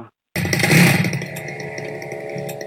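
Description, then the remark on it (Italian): A pest control fogging machine outside a window kicks in abruptly after a moment of silence, its loud, buzzing two-stroke engine roaring, swelling briefly, then settling into a steady, rough drone. “Ma cos'è? Disinfestano. Chiudi la finestra.”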